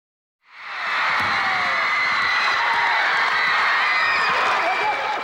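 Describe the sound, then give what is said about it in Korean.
A large crowd of spectators roars and cheers continuously in a scene from the 1994 MBC youth sports drama Majimak Seungbu (Last Match), a dense wash of voices and shouts that swells in after a brief silence and stays loud and steady throughout. “예, 관중들의 함성 소리죠.”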